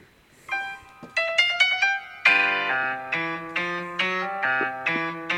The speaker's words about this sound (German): Äh, das ist mein Intro. Dein Intro. Das ist das Intro vom Kanal.